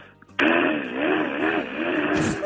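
On Park Myung-soo's Radio Show, a voice imitates a power drill boring through a wall during a neighbour's interior renovation: a loud, buzzy, sustained whine lasting about two seconds, wavering up and down in pitch, then cutting off abruptly.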